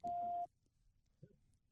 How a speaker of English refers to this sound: All right, stand by. I got the beep.